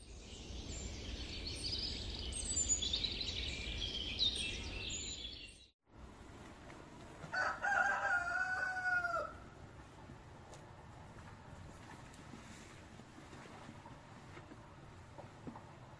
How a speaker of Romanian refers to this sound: iată că ne vedem iarăși pe un fundal de cântat de cocoș, ați auzit? Sunt undeva într-o zonă mai din munte, să spunem așa, sare munte. E dimineața așa, după odihnă.